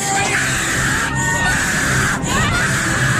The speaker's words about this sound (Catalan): com a Port Aventura ara és obligatori dur mascareta quan puges al Dragon Can i aquests crits que fotia el personal a la muntanya russa boca destapada